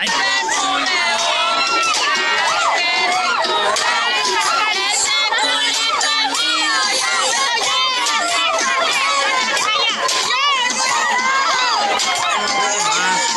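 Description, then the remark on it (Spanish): A loud, dense crowd shouting, whooping and cheering nonstop like a rowdy party at a funeral in a cemetery, women dancing perreo to reggaeton, many voices overlapping for the whole stretch. “A ver, se puede oír el, perreo aquí poquito.”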